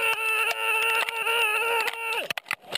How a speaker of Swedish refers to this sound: I Husby centrum fortsätter konfrontationerna. Några av poliserna skriker när de gör rusning mot ungdomar som kastar sten.